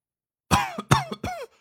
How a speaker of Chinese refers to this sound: 整个人开始剧烈的咳嗽了起来。